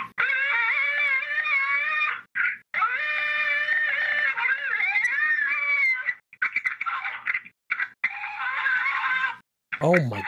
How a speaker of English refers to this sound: described by many as a Wookiee battle cry. Sounds like somebody getting eaten. Or someone doing the eating.